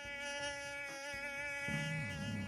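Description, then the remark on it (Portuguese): A steady, high-pitched whine of a flying insect like a mosquito hovers, its wavering buzz continuous throughout, with a low rumble joining underneath near the end; the insect is checking by sound that its resting prey is asleep before attacking. “A checagem sonora é um momento de tensão. Ao emitir o zumbido sonoro, o predador pode estar diante de uma tocaia.”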